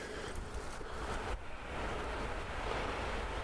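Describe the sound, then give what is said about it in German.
A train heading toward Volksdorf rumbles past in a steady, continuous low roar with a broad hiss over it, fairly loud and unbroken throughout, with no voices. “Wenn ich einen Zug höre, expektiere ich auch irgendwann einen Zug zu sehen wir haben auch zu viel verlangt, ne?”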